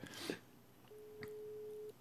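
A telephone rings with a single steady electronic tone lasting about a second, fairly clear, preceded by a short burst of rustling noise. No one speaks.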